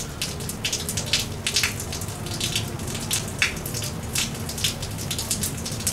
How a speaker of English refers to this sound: He'll kind of hone in on little details like the water dripping from off a building and, and landing in a puddle